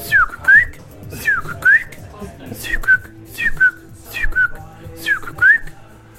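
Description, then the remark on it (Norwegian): A person whistles an imitation of the call of a bird said to live in Norway, short paired chirps repeated five times in a steady rhythm, clear with faint background noise between phrases. “Det kjennes igjen på sånne karakteristiske kvitrelyder.”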